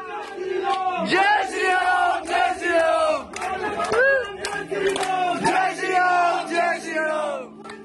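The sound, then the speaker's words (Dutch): An angry crowd of about 150 demonstrators in front of a shopkeeper's door in Uttarakhand, India, shouts anti-Muslim slogans in unison in loud, rhythmic bursts, with overlapping voices and brief dips between cries, dense and continuous throughout. “Die hebben daar zeker 20 minuten eh, staan schreeuwen, zegt hij.”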